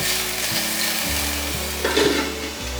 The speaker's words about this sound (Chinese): 大概焖煮了三十秒左右，来给杏鲍菇翻面。继续让杏鲍菇吸附到酱汁，再盖锅盖焖煮。